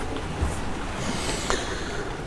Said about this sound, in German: Ach, ich bin gerade so ruhig beim Blick hier auf die Wellen